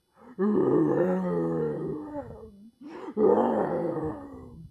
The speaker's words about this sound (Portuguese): Na manhã seguinte, assim que o sol apareceu, ouviu-se um rugido de leão terrível